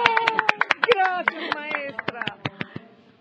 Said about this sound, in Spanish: A ver, aplausos grabados. ¡Eh!